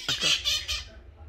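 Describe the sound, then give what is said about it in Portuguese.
Harsh, screechy bird calls, like parakeet squawks, in three quick raspy bursts, fairly loud, fading into a faint low background rumble. “Não sei se é uma maritaca ou o que que é.”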